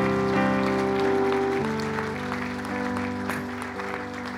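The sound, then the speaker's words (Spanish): A large church audience claps steadily and continuously for the Lord in welcome of first-time visitors, over sustained keyboard or organ chords that shift once partway through, the applause forming a dense, even patter beneath the music. “Puedes dar un fuerte aplauso al Señor por la vida de cada uno de ellos.”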